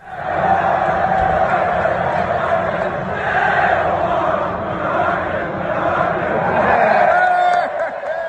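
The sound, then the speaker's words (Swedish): Stoke football fans in a stadium at a match against Huddersfield roar and chant together, a dense, sustained wall of many voices swelling and dipping over several seconds before trailing off near the end. “klippet när de sjunger att Neil Warnock is a wanker och han applåderar tillbaka”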